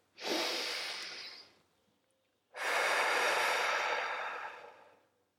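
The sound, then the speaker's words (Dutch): A deliberate deep breath drawn in and then slowly let out, two long, airy whooshes with a short pause between them and no talking. “Adem eens bewust diep in en uit.”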